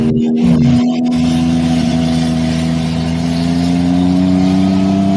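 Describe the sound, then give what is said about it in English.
A loud engine drones steadily with a strong low hum and rising whine, as if a motorcycle is being revved and held at high RPM, with no voices. “I figured we have some some real motorcycle fun.”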